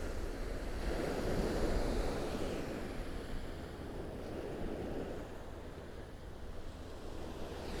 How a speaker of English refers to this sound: but something about the big, vast expanse of the ocean and the rhythm of the waves and the tides.